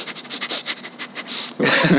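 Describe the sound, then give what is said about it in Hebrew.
Rapid, forceful breaths pumped in and out through the nose as fast as possible, in a quick steady rhythm as a breathing exercise, loud, ending in a burst of louder, noisier exhalation. “אתם רוצים פשוט להכניס אוויר מאף ולהוציא אוויר מאף הכי מהר שאפשר, אז זה...”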